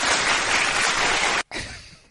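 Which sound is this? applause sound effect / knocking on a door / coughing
applause sound effect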